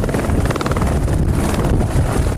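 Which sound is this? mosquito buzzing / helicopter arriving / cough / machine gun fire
helicopter arriving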